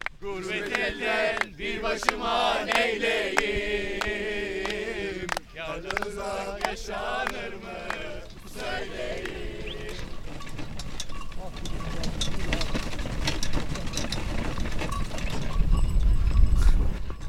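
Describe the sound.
Bells on a horse-drawn troika sledge, pulled by a white-grey horse at about 40 miles an hour across a frozen lake, jingle steadily alongside rhythmic hoof clops while people talk over them outdoors.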